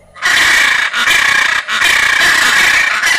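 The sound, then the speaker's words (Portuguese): Three loud, harsh hyacinth macaw screams in quick succession, each a raspy, grating screech with a strong mid-high tone, separated by brief pauses. No one speaks. “E o grito não é bonito não, cara, se liga.”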